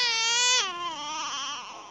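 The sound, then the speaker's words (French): A baby crocodile gives a single drawn-out distress call, a loud, nasal whine whose pitch drops abruptly midway, then wavers on for about two seconds with no other sounds. “Nicolas Madvon a distingué trois types de sons bien distincts chez les bébés crocos”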